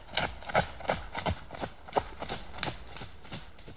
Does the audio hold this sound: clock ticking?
no